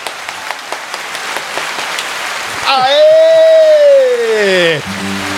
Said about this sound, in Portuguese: E eu quero uma grande salva de palmas para ele.